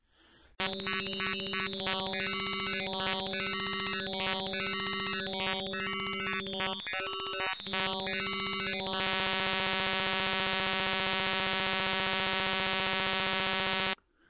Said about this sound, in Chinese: 简单的来说，先把图像展开成一组图像数据序列，数据既然变成了串儿，它就能对应的转化成一段音频，我们称为图像音频。